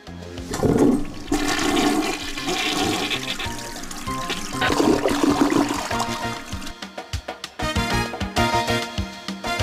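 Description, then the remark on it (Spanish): A toilet flushes loudly, a rushing gush of water that churns for several seconds before breaking into gurgling, refilling trickles. No one speaks over it. “Bueno, este, como dicen, agua que no has de beber, jálale la cadena.”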